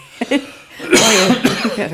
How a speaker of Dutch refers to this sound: Ik ga even hoesten